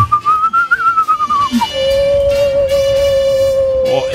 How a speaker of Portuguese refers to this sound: Hoje tem que ser um assovio mais tremuloso.